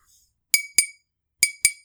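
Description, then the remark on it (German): Four bright glass clinks in two quick pairs, each a sharp ringing tap that decays briefly, clear with no talking. “Klopf, klopf. Oh, immerhin so Glas, also ist eher so Eisregen bei dir”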